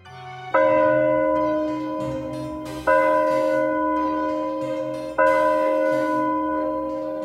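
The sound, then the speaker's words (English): A village church bell tolls slowly on a Sunday morning, three deep, resonant strikes spaced a couple of seconds apart, each ringing on with a long humming decay. It sounds clear, with no voices. “On Sunday morning, the bells rang slowly in the village.”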